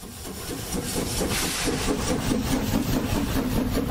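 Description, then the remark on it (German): A train that had stopped sets off again with a steady mechanical rumble and grinding hiss, its low motor hum stepping upward as it picks up speed. No voices are heard. “Aus unerfindlichen Gründen ist der Zug stehen geblieben und startet jetzt wieder.”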